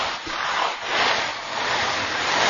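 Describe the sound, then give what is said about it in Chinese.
A steady rain-like patter made by soybeans rolling in a small dustpan as a dubbing sound effect imitating rain, a dense hissing rattle that swells and eases in gentle waves, with no voices. “哦，下雨就是用这个黄豆在这个在这个小簸箕里，然后接着就说这下雨的声音啊。”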